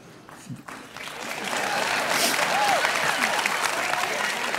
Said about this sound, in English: The guys are like, why are they clapping?